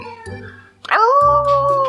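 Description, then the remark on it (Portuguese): A dog lets out a long, drawn-out howl that swells in quickly and holds a steady pitch, loud, after a quieter stretch of softer tonal whining. “o cachorrinho aí fez parte aí, ó.”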